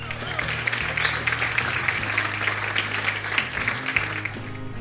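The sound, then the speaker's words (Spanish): A crowd claps steadily for several seconds welcoming a guest on the primary-school reading programme Leemos Juntos, a dense, even patter of many hands at moderate loudness, with a low sustained tone humming underneath. “Recibámosla con aplausos.”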